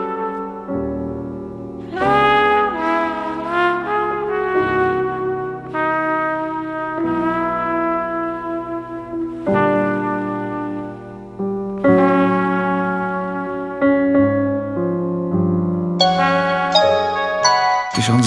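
A solo trumpet plays a slow, lyrical melody of long, sustained notes, bright and up close, with short breaths between phrases and a warm, reverberant tail; no voices.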